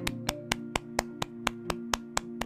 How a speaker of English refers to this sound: You get a golf clap. I'm golf clapping for you because that is exactly what you need to be doing.